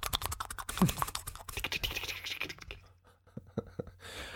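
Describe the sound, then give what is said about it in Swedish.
Rapid, irregular keyboard typing with dense clicking keystrokes, fairly loud, as someone searches on Google, thinning into a few scattered taps before a brief pause and a final burst. “Jag tror du bara slog på tangentbordet, men du sökte faktiskt.”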